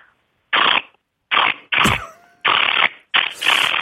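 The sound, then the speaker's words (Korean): A person vocally imitates an electric drill driving in a screw: five short, loud, hissy buzzing bursts with brief gaps between them, one carrying a thin whining tone. “전자 드릴로 나사 박는 소리 하겠습니다.”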